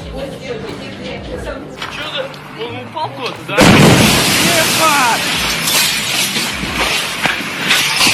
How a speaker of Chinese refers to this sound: 这个重达十到三十吨的陨石，并在十公里处剧烈爆炸，计算后时速约为五十马赫。